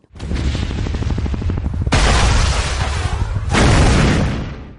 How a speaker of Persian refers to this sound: انفجار شیمیایی و گاز خردل از همان کنار دجله و فرات تا همه های پذیرای معلولان شیمیایی و تا امروز با او ماند.